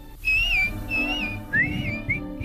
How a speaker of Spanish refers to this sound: Cuando estés en líos por tu bien o por tu mal. Dame un silbidito. Dame un silbidito.